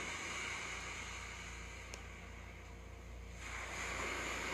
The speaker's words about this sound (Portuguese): Eu quero que você visualize agora você caminhando numa praia. Você está andando na areia, próximo às águas, as ondas estão batendo nos seus pés.